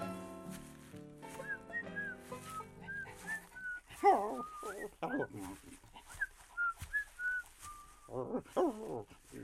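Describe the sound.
A dog named Grant whines and whimpers in a series of high, wavering cries, fairly loud, with brief pauses between bursts and some muffled voice-like sounds mixed in.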